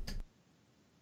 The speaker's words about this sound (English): That was the sound of me doing the whole fist bump to my chest and then peace signing, in case you guys were wondering.